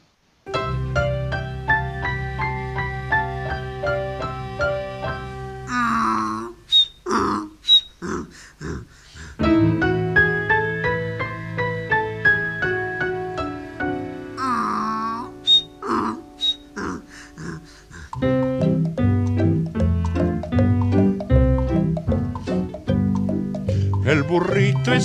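A donkey brays in two separate bursts of rough, heaving hee-haws, each lasting a couple of seconds, set against a steady, sustained musical accompaniment that carries on between them.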